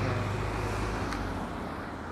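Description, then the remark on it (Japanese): Steady roadway noise of cars going by on a commuting route, a continuous low rumble with broad whooshing texture that holds fairly constant and eases slightly toward the end, heard outdoors with no voices. “今日車もガーって通るしだから正直無音はしょうがないわ”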